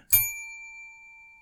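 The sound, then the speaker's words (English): A single bright metallic bell strike, like a bicycle or desk bell, rings out clearly and then sustains with a long, slowly fading shimmer. No voices accompany it. “To help me control my rowdy panel of recidivists and reprobates, I will employ what I have called the inappropriate bell. An example of this would be.”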